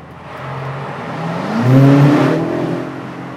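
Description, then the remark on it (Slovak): A car engine revs hard in a tunnel during a kickdown in seventh or sixth gear from about 60, with manual shifting mode set, its droning pitch climbing and swelling loudly before easing off slightly, with steady road and wind rumble underneath and no talking. “Takže som proste dal kickdown na sedmičke zo 60 či kolkatky, alebo na, na šestke a nešlo, musel som Nevydalo, podradiť.”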